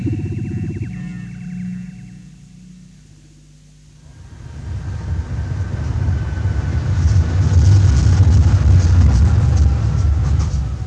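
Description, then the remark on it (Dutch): An underground train car rolls along with a deep, steady rumble that fades briefly, then swells into a loud roar of wheels and rattling carriage noise, with no voices. “Je weet dat ik het land heb aan die ondergrondse treinstellen.”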